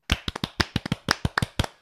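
Brief, small applause in a Tallinn studio welcoming a guest, the Tartu Bigbank head coach, after the team's Estonian cup win: a quick run of about a dozen sharp, crisp hand claps in a slightly uneven rhythm, over in under two seconds, with no one speaking.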